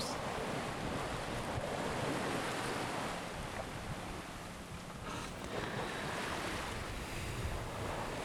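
Steady wind noise buffets the microphone while ocean waves wash and surge continuously around a sailboat at sea, heading for Cape Verde, heard from its deck as it glides along, not very fast. A broad unbroken roar with no voices.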